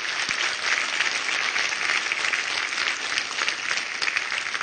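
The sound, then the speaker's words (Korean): A crowd applauds the janggu and drum players steadily, a dense wash of many hands clapping at an even, fairly loud level for the whole stretch, with no voices standing out. “우리 장, 장구 북 우리 다시 한번 박수하겠습니다.”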